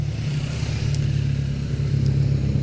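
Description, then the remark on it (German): Motorcycle engines drone steadily on a road in the Alps, with heavy motorcycle traffic: a continuous low rumble with slight rises in revving, loud, with no one speaking. “ich muss immer ein bisschen warten, weil der Motorradverkehr ist, wie zu erwarten war, recht hoch hier.”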